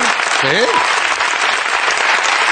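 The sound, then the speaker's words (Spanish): Steady, dense applause for El Litus fills the whole stretch at an even loudness, with a brief rising-and-falling voice cutting in near the start. “Un fuerte aplauso para el”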